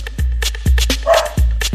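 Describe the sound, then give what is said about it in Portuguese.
A dog barks sharply several times in quick succession, loud, with short pauses between the barks and no talking; it is barking because fireworks are being set off somewhere. “Ó, o cachorro já tá bolado, o frango tá boladão latino.”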